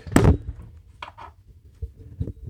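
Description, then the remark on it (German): A microphone falls with a sharp thud followed by brief clattering and rattling knocks as it settles, then quiet handling noises. “Wow, und jetzt ist mir gerade mein Mikro runtergefallen, abgefahren.”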